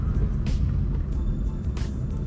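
Steady low engine rumble of road traffic, with a couple of brief hissing whooshes as vehicles go by outside, continuous and fairly loud with no talking.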